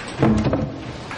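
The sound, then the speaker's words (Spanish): A garage door opens with a brief mechanical rumble and a low, steady hum, moderately loud, with no one talking. “La puerta del garaje se abre.”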